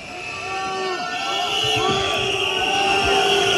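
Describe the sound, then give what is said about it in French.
A large crowd of farmers at the Salon de l'Agriculture booing and shouting over one another as they greet Emmanuel Macron, a dense, continuous wall of overlapping voices that stays loud and grows slightly stronger throughout. “Emmanuel Macron accueilli hein, par euh, les huées d'agriculteurs qu'on entend, des affrontements entre certains d'entre eux et des CRS ont également eu lieu.”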